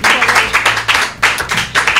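A burst of applause from a group, dense and steady with loud rhythmic clapping throughout, and a faint voice murmuring underneath.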